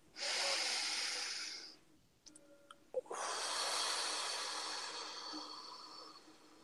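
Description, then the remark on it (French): One long, deep breath drawn in with a broad airy rush, a brief pause with faint clicks, then a long slow exhale fading gradually, with no talking, taken with eyes closed during a guided relaxation session. “Alors, une respiration.”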